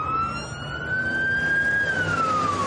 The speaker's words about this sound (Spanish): En la calle una ambulancia circula a gran velocidad.